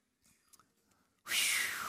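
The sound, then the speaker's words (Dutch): Someone takes a quiet sip of a drink, with soft wet mouth and swallowing sounds, then lets out a sudden loud, breathy exhale of relief. “Ja, neem ook even een slokje.”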